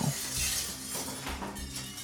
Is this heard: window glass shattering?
yes